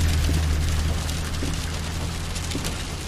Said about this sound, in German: Es regnet und stürmt wie blöd und vor dem Haus ist nichts mehr frei.